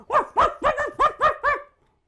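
dog barking

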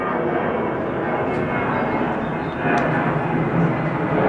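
airplane flying overhead

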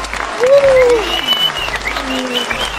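applause sound effect

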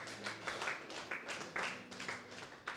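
audience clapping

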